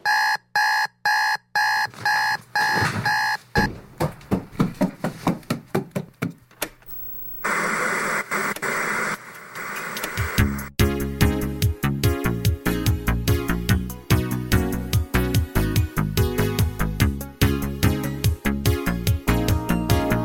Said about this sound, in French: Ça ferait un bon générique de série télé, t'as raison. c'est ça la synthwave. C'est des musiciens, ils font des sons comme dans les années 80, avec des synthétiseurs, d'où leur nom synthwave, la vague des synthés.